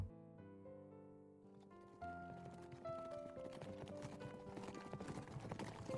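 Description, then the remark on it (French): Horse hooves trot in a steady clip-clop rhythm as a rider remounts and continues on their way, starting about two seconds in beneath sustained musical tones, moderately loud with no talking. “À présent, remonte sur ton cheval et continue ta route.”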